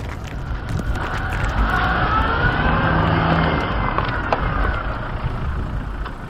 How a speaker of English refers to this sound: I get in, I start the car, engage the clutch. The car lurches backwards, it slips, and then it finds its grip. I gun it, reverse, with rocks and wood shooting up all around me.